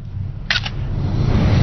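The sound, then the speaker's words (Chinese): A mobile phone camera shutter fires as a quick pair of crisp, bright clicks, one right after the other, while taking a photo, over a steady low background rumble, with no talking. “我还找您呢，我给您照张相吧。”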